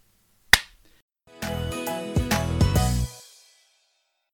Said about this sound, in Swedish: Ja, ja nu klappar jag nu här.